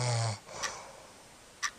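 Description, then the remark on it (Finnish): A single loud, rumbling snore from someone lying right beside the listener, followed by quiet breathing and two brief, sharp snorting breaths. “miksi toi kuorsaa tuossa vieressä?”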